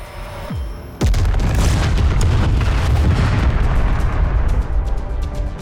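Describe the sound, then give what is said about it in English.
A short whine gives way to a sudden, loud explosive blast, followed by a sustained heavy roar with crackling bursts, as aircraft cannon fire strikes the Hell Talon aircraft and its fuel vapor erupts in flame, exploding and rumbling on without pause. “fuel vapor erupts with the cruel hiss of flame, as if by magic, blinking into a blood orange flash that splits the Hell Talon apart.”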